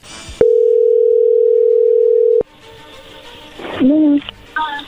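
A steady, loud single-pitch telephone dial tone holds for about two seconds while a call connects, then cuts off into quiet line noise with a few faint voice-like sounds.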